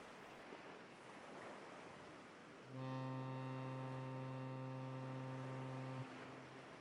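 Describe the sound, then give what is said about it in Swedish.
Surf washes steadily, then the deep, steady droning tone of a boat far out at the horizon cuts in loudly, holds for about three seconds and stops abruptly, leaving the waves. “Det kommer en båt! Det kommer en båt! Vi är räddade!”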